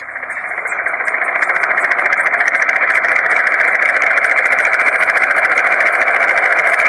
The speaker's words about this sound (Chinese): 忽然，就在这时，一阵。直升机的声音传入了猴子警长小鸡墩墩的耳朵里。